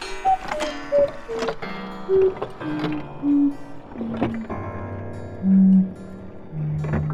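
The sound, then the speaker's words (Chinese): A cuckoo clock sounds a run of two-note calls, each pair stepping down in pitch, repeated several times over about seven seconds amid ringing, tonal chimes. No one speaks. “这时候，皇冠里面的布谷鸟又飞出来了。”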